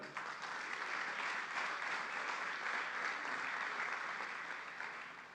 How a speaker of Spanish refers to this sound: Dale un aplauso al Rey, hermano.